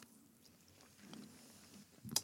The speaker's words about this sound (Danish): Jeg tog også en ret stor bid.